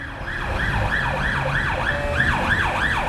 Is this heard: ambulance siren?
yes